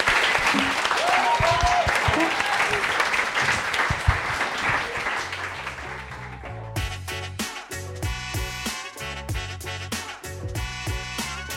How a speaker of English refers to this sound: Thank you very much for coming. I would like to clap you.